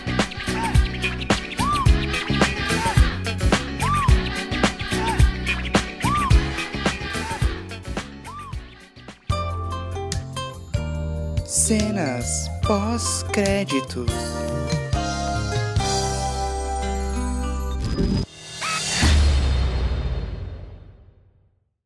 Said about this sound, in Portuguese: O que, que você jogou na privada que não foi de primeira aí, mano? Cocôzão?